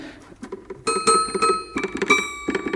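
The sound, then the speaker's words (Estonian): Several bright, bell-like notes from an old toy piano ring out one after another at an uneven pace, each struck and left to chime briefly, with no talking. “vot sellist häält jah, et siin mõni klahv isegi töötab”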